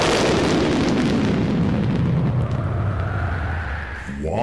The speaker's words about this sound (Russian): В тот же миг раздался раскат грома, за которым последовал голос.